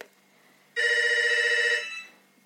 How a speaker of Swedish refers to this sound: ah, nu ringer en sån här äh, telefon. Hemtelefon. Ska jag svara?